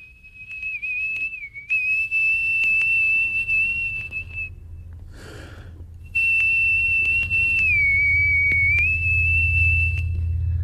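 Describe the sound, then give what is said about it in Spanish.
A person whistles a tune in two long, clear, piercing phrases with gliding pitch dips, separated by a brief breathy pause, over a low background rumble. “¿Me puedes silbar?”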